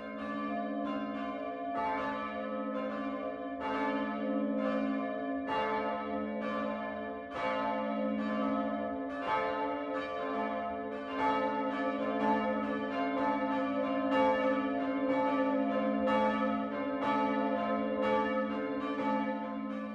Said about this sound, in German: Es ist 12 Uhr. Das Mittagsläuten kommt heute von der evangelisch-lutherischen Pfarrkirche St. Michael im unterfränkischen Hofstetten.